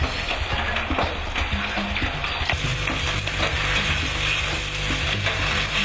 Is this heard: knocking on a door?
no